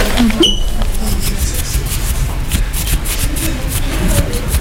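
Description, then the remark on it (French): Soft, continuous rubbing and wiping of a camera lens during a film shoot, a steady papery swishing with faint light clicks, fairly loud and with no talking. “Je peux enregistrer pendant que tu nettoies ton objectif”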